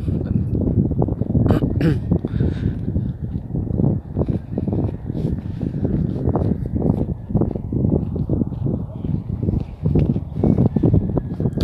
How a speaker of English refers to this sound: it's a really nice day out today. It's nice and sunny. Um, it's it's kind of windy, but it's not too bad.